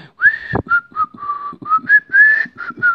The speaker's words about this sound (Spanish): pero yo sé chiflar en japonés, güey. A ver. Es la de